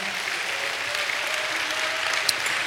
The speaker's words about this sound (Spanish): Dale un aplauso a Dios por eso, que Él es el que lo hace.